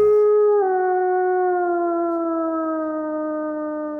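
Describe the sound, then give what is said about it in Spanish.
A single long, sustained wolf howl that holds one steady, slowly falling pitch for several seconds, loud, with no other sounds around it. “Mira qué largo aúlla el lobo.”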